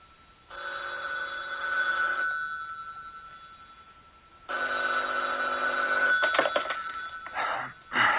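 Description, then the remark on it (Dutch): A telephone rings twice, each long, steady, bright bell-like ring about two seconds, separated by a pause, followed by a few sharp clicks and clatters. No one speaks. “Waarom bel je zo vroeg, man?”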